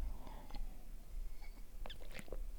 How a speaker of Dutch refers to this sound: Ik ga heel eventjes een slok nemen.